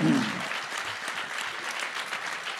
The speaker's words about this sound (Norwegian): En applaus.